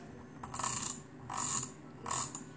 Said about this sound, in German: Ich mach kurz den PC an, wir machen Gameplay. Hört ihr das?